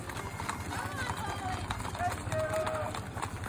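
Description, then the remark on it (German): A herd of a hundred horses trots closely packed past a guest ranch in Wyoming, down a hill at evening toward their night pasture by the river, a dense, continuous clatter of hooves, many overlapping clip-clops forming a steady rumbling rhythm, with a brief whinny-like tone rising above the din. “Hundert Pferde dicht an dicht trappeln am Anwesen vorbei einen Hügel hinunter.”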